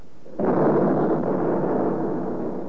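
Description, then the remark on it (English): A V1 flying bomb, its engine stopped, explodes in the next block in London in 1944 with a sudden, heavy blast that swells into a loud, sustained rumbling roar lasting a couple of seconds. No one speaks. “Look out, here comes another V1. Yeah, the engine stopped.”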